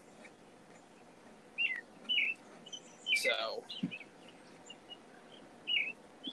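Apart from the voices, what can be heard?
birds chirping outdoors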